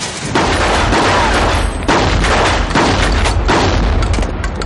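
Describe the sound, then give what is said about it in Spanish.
Several loud, heavy gunshots boom in succession, fired out through a rear window after a mattress is pulled away from it, each blast ringing out into a dense, rumbling wash of noise that barely fades before the next shot. No voices are heard. “Corren a la ventana trasera, quitan el colchón y disparan.”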